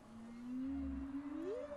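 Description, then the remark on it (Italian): A gray whale call: one drawn-out tonal moan that slowly rises in pitch, with a low rumble beneath it, heard alone against faint underwater hiss. “Fatto sta che 3 milioni di anni fa le balene grigie sono rientrate in acqua e ci sono rimaste.”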